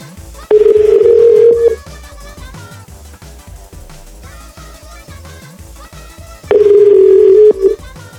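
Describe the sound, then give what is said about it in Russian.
A telephone ringback tone as someone dials a call on a phone: two long, steady, loud beeps several seconds apart, with a faint musical hum lingering underneath between rings and no one talking. “Так, сейчас мне бы набрать сначала, а потом тут разглагольствовать.”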